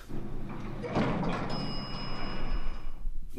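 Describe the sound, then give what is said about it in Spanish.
An elevator arrives at the ninth floor with a low mechanical hum, then a door slides open with a rumbling whoosh and a thin, sustained high whine, moderately loud, with no talking. “El ascensor llega al noveno y hay alguien esperando.”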